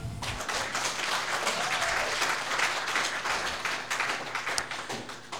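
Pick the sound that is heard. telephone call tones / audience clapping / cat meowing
audience clapping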